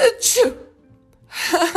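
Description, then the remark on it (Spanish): One sharp sneeze with a breathy hiss from a person who says they sneeze frequently and have a sore throat and a bad cough, then a brief quiet gap before a voice makes breathy, murmured sounds. “y estornudo frecuentemente.”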